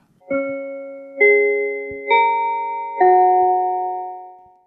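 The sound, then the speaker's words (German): A church bell in Basel, Switzerland rings out four strikes at roughly even intervals, each tone a different pitch, ringing and overlapping with the last before fading slowly. Clear, with no voices. “Es ist interessant, ich die Klingel in Basel noch wieder hören.”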